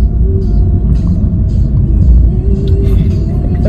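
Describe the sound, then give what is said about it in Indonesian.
Steady low rumble of a car interior while driving, a dense continuous drone of engine and road noise with faint hums on top, loud throughout. “tapi ngomongin mobil ini, ini kan mobil lo nih ya”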